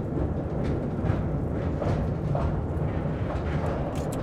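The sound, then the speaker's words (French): The metal wagons of a locomotive-drawn mine train rumble in a steady, heavy roar, with brief, faint metallic squeals surfacing now and then above the continuous low clatter. No one speaks. “Alors oui, ça reste extrêmement bruyant et puis les wagons étant en métal, ça grince passablement.”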